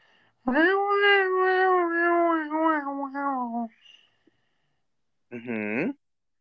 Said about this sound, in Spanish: Porque al final recuerda que dijo que estuvo maullando, pero de una forma como que si estuviera peleando con otro gato.